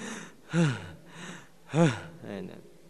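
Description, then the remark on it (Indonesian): A voice imitates breathless panting: two strong, voiced gasping breaths about a second apart, with softer airy huffs in between, no other sounds around. “Jadi karena diseret terus sampai menggos-menggos.”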